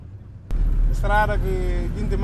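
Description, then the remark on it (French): A taxi's engine rumbles steadily, as heard from inside the white and blue car moving through traffic in Bissau, Guinea-Bissau, with a person talking over the low drone. “Le chauffeur de taxi poursuit sa route. À bord de sa voiture blanche et bleue, lui aussi pointe du doigt le manque d'infrastructures.”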